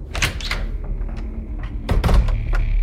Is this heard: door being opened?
yes